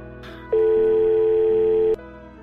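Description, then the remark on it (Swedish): A single telephone ringing tone, one steady, loud beep held for about a second and a half, clear over a faint background murmur, with no talking. “Ja, ja, ja, ja, nu ringer jag igen ja.”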